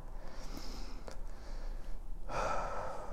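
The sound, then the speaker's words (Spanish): A single deep inhalation, swelling into a broad airy rush in the latter half, with no talking. “Y respira, porque esa es otra cosa de la que quiero hablar, algo que me he dado cuenta, que no estoy respirando.”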